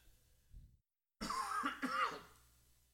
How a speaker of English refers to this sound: All of a sudden, I feel like I need to cough. Imagine that.